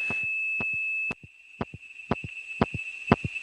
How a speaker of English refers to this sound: this doesn't do any good, but it's kind of interesting, and you can actually hear the supervision noises on the trunk.